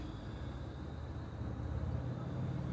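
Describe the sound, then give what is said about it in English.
A steady, muffled rumble of beat-up old cars running at an old car show in a park, a low continuous engine drone that swells slightly toward the end, with no talking. “They're having the beat up old car show down at the Apparently.”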